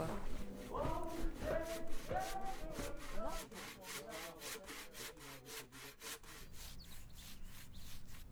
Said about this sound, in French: Là, je peins un, panneau d'affichage pour euh, notre jardin collectif